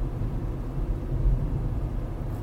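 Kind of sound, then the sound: vehicle, car interior road rumble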